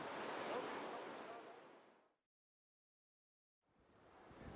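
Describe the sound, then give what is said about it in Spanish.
Loud rush of the Rio Grande (Río Bravo) pouring over a slippery concrete weir at dawn, a steady hissing roar that fades away into silence for over a second before surging back in. “Ya está amaneciendo y estoy parada sobre el concreto resbaladizo cruzando el río Bravo.”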